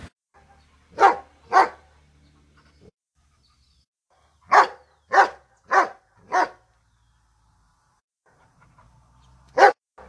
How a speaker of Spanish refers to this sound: El primero es el ladrido de un perro.